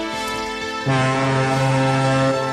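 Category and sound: vehicle, ship's horn blowing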